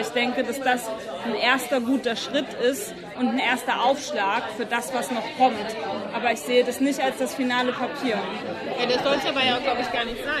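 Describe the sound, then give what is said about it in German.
A man speaks in the foreground while a steady wash of overlapping background chatter and murmuring voices fills a busy, well-attended bar during a monthly SPD political regulars' meeting, continuous throughout. “Dieser politische Stammtisch der SPD findet jeden Monat in einer gut besuchten Bar statt.”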